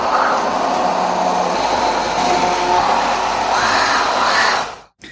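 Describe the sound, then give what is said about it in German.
A hand blender grinds spices, including cardamom, into a fine paste with a steady, loud whirring roar that shifts slightly in pitch as the contents churn, then cuts off abruptly at the end. “bis wir wirklich eine ganz feine Paste haben. Und auch der Kardamom war ja ganz, also ich möchte möglichst, möglichst alles zerkleinert haben.”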